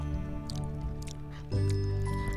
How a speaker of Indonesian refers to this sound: Ini ngunyah terus dari tadi kecelah kecelah. Emang kedengerannya? Ya kedengeran nggak apa-apa sih ngunyah-ngunyah aja.